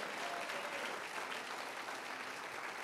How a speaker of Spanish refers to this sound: Alguien aplauda si lo cree.